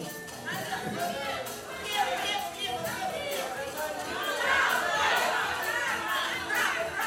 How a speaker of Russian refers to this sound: Кто-то кричит влево, кто-то кричит вправо. Наверное, это конкуренты сбивают его с пути.